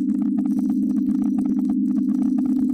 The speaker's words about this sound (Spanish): aquí les ponemos un sonido de ejemplo que son las raíces de maíz.